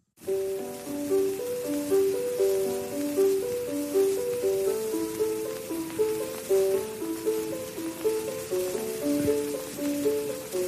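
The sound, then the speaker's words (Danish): An old gramophone recording of a grown man singing: a melodic line of held and stepping notes plays steadily beneath a constant layer of crackle and hiss, with no talking over it. “Og det er jo en gammel optagelse, ikke?”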